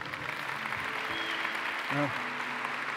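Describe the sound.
An audience applauds steadily at a conference, a dense, even wash of clapping lasting the whole clip, with a few voices calling out briefly beneath it.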